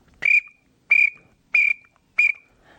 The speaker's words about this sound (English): I personally, unless they're mixed in with mallards, if we're calling just pennies, I will not blow reed call it a pintail. I don't think they like it. Uh, however, we have called a lot of pintails in with the whistle.